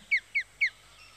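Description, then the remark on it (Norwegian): Birds calling: three short, harsh caws in quick, evenly spaced succession, clear, followed by a moment of quiet with no voices. “intervjua de eneste gjenlevende dinosaurene vi har”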